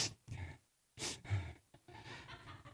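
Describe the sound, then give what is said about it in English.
A person imitates their own nervous sniffing and heavy breathing: short sharp inhales through the nose and breathy exhales in quick bursts, fairly quiet, with brief pauses between. “A lot of times I'll I'll be sitting there, and and she'll say, "You're sniffing again."”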